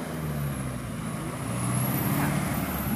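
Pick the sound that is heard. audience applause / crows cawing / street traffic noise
street traffic noise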